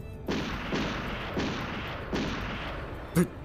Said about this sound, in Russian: В тишине леса вдали грохочет выстрел.